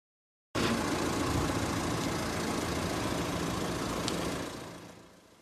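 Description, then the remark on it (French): A parked car's engine idles steadily, a low continuous rumble with faint rattling, before fading out toward the end. No one speaks. “Mathieu Klein, le maire socialiste de Nancy, vient de signer un arrêté pour verbaliser les voitures qui tournent hors de la circulation.”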